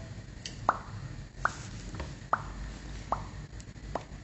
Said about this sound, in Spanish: Abrió la llave del agua y se dio una agradable ducha. Como, en muchas casas antiguas, la llave se quedó goteando.